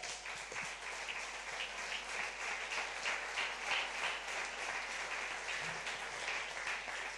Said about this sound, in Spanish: Dele un aplauso a Dios.